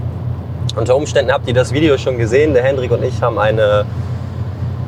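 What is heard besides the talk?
car interior driving noise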